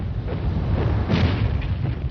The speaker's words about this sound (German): Kurz vor der eigentlichen Landung an gleichzeitig fünf Abschnitten der französischen Küste eröffnet die alliierte Schiffsartillerie ein infernalisches Feuer.